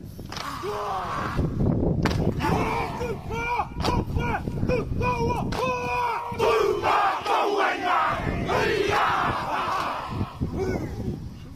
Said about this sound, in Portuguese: Uh, as pessoas que seguem o rugby conhecem esta dança de guerra dos maoris, mas realmente os ucranianos gostaram muito de ver os seus camaradas uh, da Australásia despedirem-se deles assim.